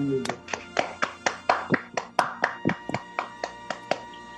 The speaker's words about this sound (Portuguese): Enfim, uma salva de palmas para essa galera.